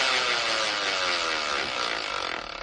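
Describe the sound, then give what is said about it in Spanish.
A Binford variable-speed power drill with double speed reduction, 400 revolutions per minute and over 6 amps revs steadily for a few seconds, a loud, buzzing motor whine whose pitch gradually slides as the speed changes, with no voices over it. “Esta es una taladradora de velocidad variable de Binford.”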